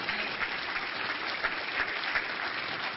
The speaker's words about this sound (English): Give a Lord a hand clap, somebody.